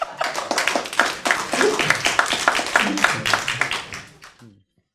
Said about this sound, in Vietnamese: vỗ tay